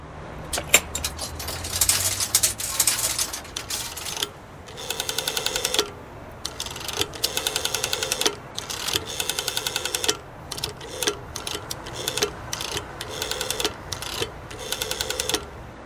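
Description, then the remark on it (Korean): The rotary dial of an old public payphone is turned again and again with a finger, each spin back releasing a quick run of ratcheting clicks, with short pauses between digits. Clear and mechanical, with no one talking, on a cold day. “네, 손가락을 넣어서 다이얼을 돌리는 소리가 났었죠.”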